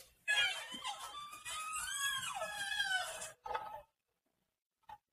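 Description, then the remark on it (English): A monkey gives a run of shrill, warbling squeals for about three seconds, then one short cry and a faint chirp after a pause, fairly loud with no talking. “That was monkey.”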